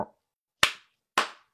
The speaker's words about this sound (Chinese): 说完，王伦啊拍了拍手，